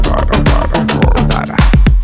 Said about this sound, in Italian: Dammi un jingle.